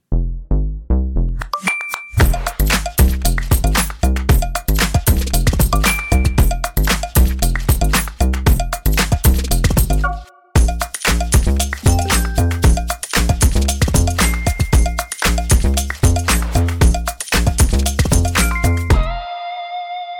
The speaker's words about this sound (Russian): А теперь я возьму маленькую паузу и заиграю джингл, который вы обожаете. Поехали.